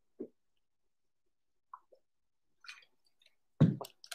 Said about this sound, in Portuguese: A vacina, é, eu tenho que beber água, peraí.